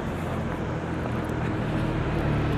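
A steady, broad rumble of traffic fills the background, cars driving past with a low engine drone and road hiss and no clear individual pass-by, and no voices, heard while walking to work.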